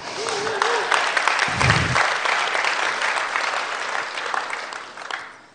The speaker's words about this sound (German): Ah, klatscht mal, ich erzähle ihr das, wenn ihr klatscht.